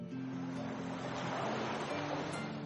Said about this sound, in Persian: در حقیقت بیشتر صداهایی که ما از اونها همیشه به عنوان صدای دریا یاد میکنیم صدای امواج دریا هستند که به ساحل میرسن و ایجاد صدا میکنن